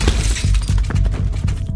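A drinking glass smashes and shatters, a loud close crash followed by a dense scatter of sharp tinkling fragments over nearly two seconds, with no voices.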